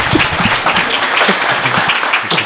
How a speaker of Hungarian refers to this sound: Szerintem egy tapsot megérdemel.